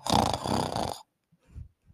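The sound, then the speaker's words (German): A loud beatbox snort bass: one buzzy, rumbling inhaled snort, roughly a second long, made by a voice, then a couple of faint short puffs of breath. “Snort Base”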